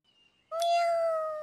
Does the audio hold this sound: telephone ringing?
no